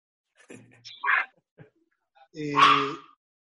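animal, dog barking and whimpering

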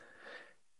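human body sound, sneeze

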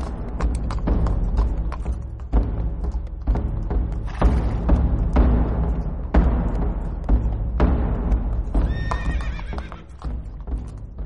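animal, horse hooves approaching

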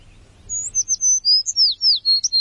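bird, wild birds chirping

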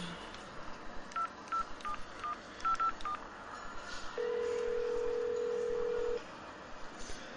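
signal or alarm, telephone keypad dialing tones

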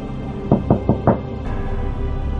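household object, knocking on a door

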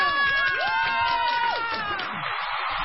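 crowd, audience applause and cheering

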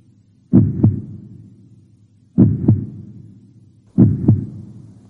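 human body sound, heartbeat

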